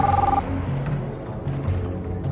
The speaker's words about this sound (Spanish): Al poco suena su móvil.